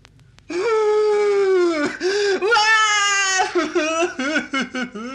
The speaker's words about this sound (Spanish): Y uno de sus amigos quiso hacer lo mismo. Se fue al río, dejó caer su hacha en el agua y se puso a llorar.